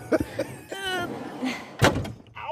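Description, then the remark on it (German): A van door slams shut once with a loud, solid thud, set among brief murmurs and rustling, with a voice briefly audible. “Erst hat der Wind das Zelt geholt und jetzt hast du den Bus kaputt gemacht.”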